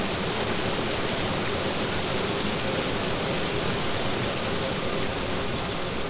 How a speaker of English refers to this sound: And then suddenly there's this image of a rainforest popping into my mind until it's the only thing that I can see. There's no more funeral home. It's just Lorenzo standing by a waterfall, letting it roar.